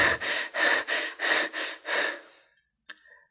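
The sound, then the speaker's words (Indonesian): Six quick, heavy pants in a steady rhythm, breathy, from someone catching their breath after running, then a pause and a small sharp intake of breath at the end, with no talking. “Tanya … sambil terus mengambil nafas.”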